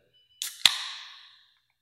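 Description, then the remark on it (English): A can of stout beer cracked open: a short hiss, then a sharp metallic pop, followed by a fizzing rush of gas that fades away over about a second. No one speaks. “So I'm gonna let you crack this sure. one because I did the first one, and we'll see how the pouring skills are today.”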